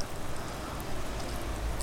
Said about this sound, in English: It's just started to rain